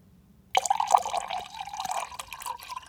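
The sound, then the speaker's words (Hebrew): Cold water pours steadily into a glass, starting abruptly and trickling on with a rising, gurgling fill tone, clear with no voices. “לכו תשתו איזה כוס מים קרים.”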